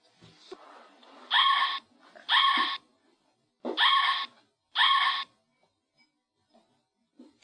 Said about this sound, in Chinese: 它们住在山里和树林里。我们来听下狐狸的声音吧。